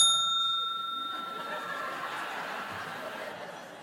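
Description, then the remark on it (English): A single bright bell strike rings out clearly at the start, its tone shimmering and slowly fading over a few seconds into a soft, noisy background. “When there's a speaker on, if the other team wants to bring up a point of information, they can do so after the first bell, but not after the second bell.”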